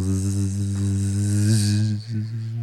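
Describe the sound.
A person imitates the very loud buzzing of a flying insect with a steady, low, droning hum held for about three seconds. It dips briefly near the end, then continues strong.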